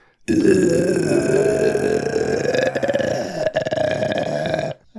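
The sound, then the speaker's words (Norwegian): A voice imitates audio slowing down to zero speed, holding one low, drawn-out groaning drone for about four seconds, loud, with nothing else around it. “Han blir så treig. til slutt så sitter bare alle de lydene bare sånn”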